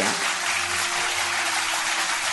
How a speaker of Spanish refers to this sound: Ahí subieron los aplausos, fin. Gracias.